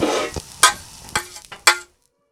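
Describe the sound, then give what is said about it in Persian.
Sheep tail fat sizzles and crackles as it melts in a pot over medium heat on a gas burner, a steady hiss that fades as three sharp knocks of a stirring utensil ring out against the pan. No one speaks. “با یک حرارت متوسط دنبمون رو تفت میدیم زیر گاز رو باید مراقب باشیم خیلی شعله زیاد نباشه چون اگر شعله کنترل نشه میسوزه دنبه ها کم کم آب میشه باید مراقب باشیم نسوزن پس شعله زیاد نباشه”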